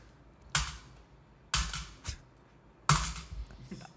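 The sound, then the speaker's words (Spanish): Coins being tossed down, giving three or four sharp metallic clinks at uneven intervals, fairly loud against a quiet background with no talking. “Tira, deja tirar monedas por Fox.”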